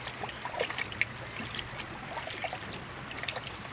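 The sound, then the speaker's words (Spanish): Water sloshes and splashes steadily as people wade into water up to their necks, with small irregular splashes and dribbles over a continuous watery wash, moderately quiet, no talking. “Ahora, entrada al agua, que os cubra hasta el cuello.”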